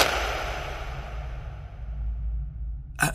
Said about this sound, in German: angeblich als Echo ertönen, wenn man klatscht.